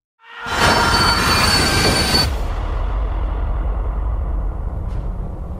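A moving train rumbles loudly as its wheels let out a sharp, high metallic squeal for about two seconds, then the squeal cuts off and the steady low rolling rumble continues.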